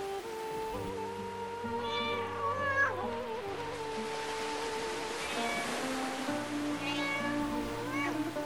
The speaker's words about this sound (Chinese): 土耳其的猫